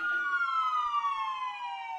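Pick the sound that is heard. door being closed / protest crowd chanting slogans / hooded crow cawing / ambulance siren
ambulance siren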